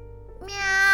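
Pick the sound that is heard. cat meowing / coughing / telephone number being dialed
cat meowing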